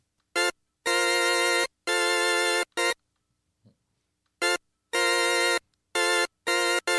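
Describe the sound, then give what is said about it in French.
A bright, buzzy synthesizer factory preset plays in a rhythmic phrase of short and sustained notes, pauses briefly, then repeats the same pattern, with no one speaking. “Voilà, ah alors je vais vous faire écouter le preset, c'est-à-dire le, le son d'usine”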